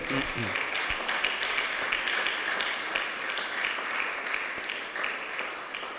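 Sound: audience applause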